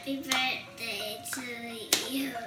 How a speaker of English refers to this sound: Grandma's clapping along.